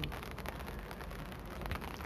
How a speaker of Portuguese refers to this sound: Vocês estão ouvindo? Estão ouvindo o som da chuva lá?